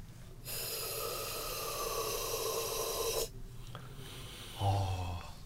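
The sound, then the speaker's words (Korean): A steady hiss of oxygen released from a portable oxygen can as its button is pressed, lasting about three seconds while someone breathes in through a mask fitted onto the can and held to the mouth, then a short breath afterward. “산소가 들어간 것 같아요.”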